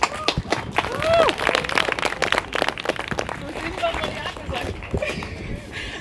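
An audience applauds steadily for several seconds, a dense patter of many hands clapping, with a few rising whoops and cheers mixed in near the start.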